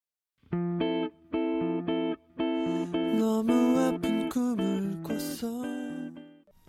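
A pop song about friendship with dogs, played as a musical break: bright, electronic-sounding chords pulse in short rhythmic bursts at first, then settle into a fuller, steady stretch of melody at a strong, even volume.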